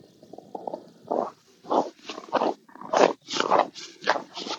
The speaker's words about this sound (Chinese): 我踩在雪地上的声音很好听吧？